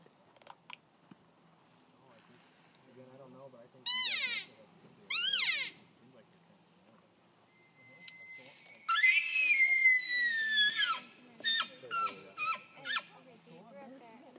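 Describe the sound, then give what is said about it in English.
Two brief cow calls made by a caller a second apart, then after a pause a bull answers with a long, high-pitched whistling scream, followed by several shorter clipped bursts, all fairly loud against a quiet outdoor background. “So I make two cow calls and you can hear the bull scream”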